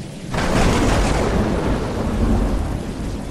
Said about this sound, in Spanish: Este desequilibrio se puede percibir por medio de la transferencia de electricidad en forma de rayo y también por los fenómenos de expansión y contracción en forma de sonido, como un trueno.